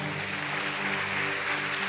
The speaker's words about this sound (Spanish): Dele fuerte ese aplauso al Señor.